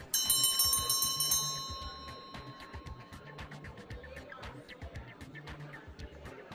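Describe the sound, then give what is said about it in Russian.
A bright bar bell in a pub is struck loudly once to announce closing time, its ringing tone slowly fading over a few seconds, while busy clinks and a low thumping beat carry on beneath it. “Вот только барный колокольчик, оповещающий о закрытии заведения, распорядился судьбой Делии иначе.”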